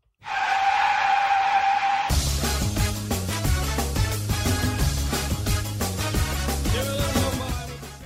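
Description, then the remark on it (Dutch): A car skids with a loud, sustained tire screech lasting about two seconds, then music with a heavy beat abruptly takes over and plays to the end. “volgens mij begon die clip met een scheurende auto.”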